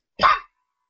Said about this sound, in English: coughs to wake her up.